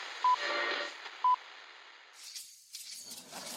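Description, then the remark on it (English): A mobile phone rings for the second time with two short, steady electronic beeps about a second apart, fairly soft against a hissy background, followed by brief rustling and clattering noise. “What phone is that? That's the second time it's gone off.”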